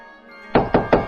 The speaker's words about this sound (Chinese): 这时，他听到下面的大门被敲得砰砰的响。